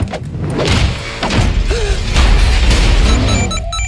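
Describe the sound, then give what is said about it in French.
A door is smashed with a loud, heavy crash, followed by rumbling, clattering debris for a few seconds. It is forceful, and no one speaks. “Waouh, elle doit être chère cette porte.”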